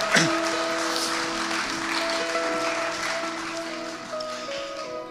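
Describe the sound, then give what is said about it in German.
An audience applauds steadily for about five seconds, a dense wash of clapping over sustained organ or keyboard tones that hold and shift underneath. “Sagt mal einen Amen dazu. Applaus”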